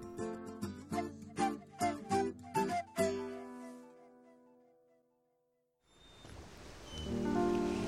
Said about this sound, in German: Der Hafen der kleinen Küstenstadt schlummerte in sanfter Mittagsruhe. Die Wellen schwemmten und rauschten in beschaulichem Takt.